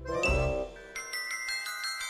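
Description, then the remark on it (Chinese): A school bell rings for dismissal at the end of the school day: a bright metallic strike with lingering harmonics, then a quick run of repeated, evenly spaced ringing pulses. Nobody speaks. “放学的铃声一响，青青就张开漂亮的翅膀往家里飞去。”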